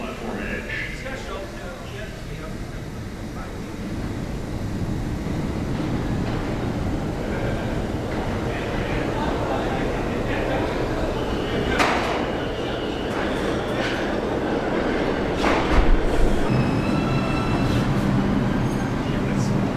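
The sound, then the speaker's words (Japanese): A subway train rumbles steadily into the station, where a lot of trash has piled up between the tracks. Its wheels let out thin, high-pitched squeals that peak near the end as it slows, with faint voices in the background. “下鉄汚いです線路の間にゴミがたくさん溜まっています”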